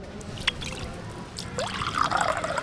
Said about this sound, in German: Ein Glas frisch befüllt mit klarem, kaltem Wasser.